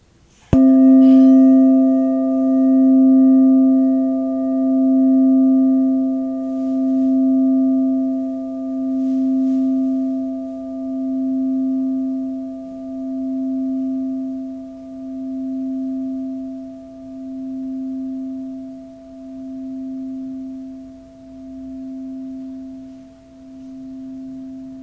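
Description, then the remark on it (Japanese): A Buddhist rin singing bowl is struck once and rings on alone for about 25 seconds, a low, pure tone with faint higher overtones that pulses gently as it slowly fades. “では今日もね最後にリンを鳴らしていきたいと思いますではいきますね軽く目を閉じてリンの音に浸ってください”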